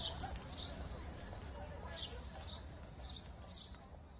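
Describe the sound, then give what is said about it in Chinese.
Short, high bird chirps repeat roughly every half second in pairs, sounding faint over a steady low rumble and murmur of outdoor background noise in the Luxembourg Garden in Paris on a sunny spring day, with horse chestnut trees in bloom. “我看见了树上的蘑菇，还听见了其他的鸟鸣，虽然我没有看见。”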